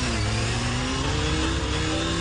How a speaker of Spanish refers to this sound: Dos motociclistas, Alberto y Julio, conducen por una vía con límite de 50 kilómetros por hora. Tienen las mismas motos y manejan en las mismas condiciones.